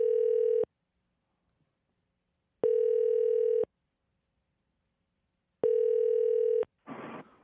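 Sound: telephone call ringing tone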